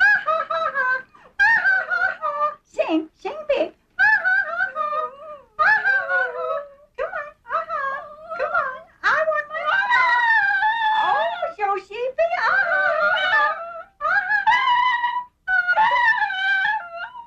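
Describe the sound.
A dog howls and yowls in wavering, speech-like bursts as a woman tries to get it to say "I want my mama", its pitch sliding up and down through a long, fairly loud run of vocalizing with brief pauses between phrases.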